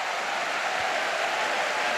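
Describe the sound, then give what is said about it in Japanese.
A steady, dense wash of crowd noise from a crowd of over 40,000 at Hanshin Racecourse before the 64th Takarazuka Kinen, cheering and clapping continuously under a thinly overcast sky at an even loudness with no individual voices standing out. “大観衆大歓声と拍手が薄曇りの空に溶け込んでいきます”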